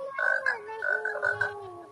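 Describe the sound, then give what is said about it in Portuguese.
A frog croaks in a steady run of pulsing, throaty calls, moderately loud, continuing for a couple of seconds with no talking over it. “Deixa eu ver se eu um sapo, aqui, tem uma criança, tem tudo nessa live.”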